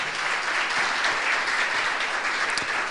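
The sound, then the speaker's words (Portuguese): Steady, dense applause from an audience welcoming a guest speaker to the front, many hands clapping at once in a continuous loud wash with no pauses or voices standing out. “E eu gostaria de recebê-lo agora com uma alegria, com uma salva de palmas e vamos trazê-lo aqui à frente.”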